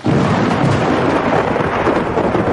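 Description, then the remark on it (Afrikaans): A loud, sustained roar of thunder rolls through a wild storm, dense and rumbling without a break for a few seconds, with no voices. “In woeste storm.”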